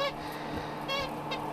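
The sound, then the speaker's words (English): A squeaky dog toy, a fake wrestling championship belt, being chewed by the dog Atlas, letting out three short, shrill, honking squeaks at uneven intervals, with no talking over them. “uh, sorry about the squeaking noise of the dog toy, Atlas.”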